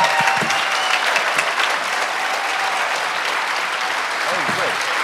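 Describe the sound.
An audience applauds steadily, a dense wash of many hands clapping at an even, loud level throughout, with faint voices and cheers mixed in.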